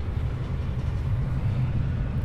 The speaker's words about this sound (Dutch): ik had kunnen weten dat het hier te lawaaierig en te winderig was om iets fatsoenlijks op te nemen. Er komt nu ook een tram voorbij.